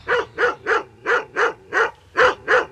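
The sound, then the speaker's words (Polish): A Cane Corso guard dog, one of the three-year-old siblings Axel and Angel, barks about eight times in a quick, steady rhythm, loud, with a brief pause before the last couple of barks. No one speaks. “To są pana, Cane Corso.”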